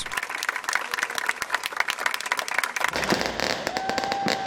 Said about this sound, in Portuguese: O corpo da menina foi enterrado hoje sob aplausos.